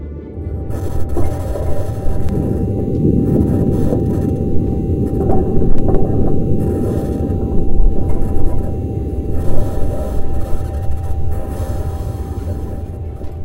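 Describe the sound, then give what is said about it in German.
A small rover rolling over the surface of Mars, heard as a steady, loud, low mechanical rumble with rasping, clanking and ratchet-like scraping throughout, occasional brief sharper knocks, and no voices. “Klänge aus einer Welt, die viele Millionen Kilometer von uns entfernt ist kleiner Rover rollt über den Mars, lauscht dem Wind dort und einer Drohne, die neben ihm startet.”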